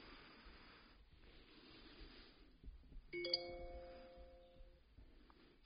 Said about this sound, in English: Apologies if you're hearing uh, noises, notifications coming through on my phone whilst I'm doing this.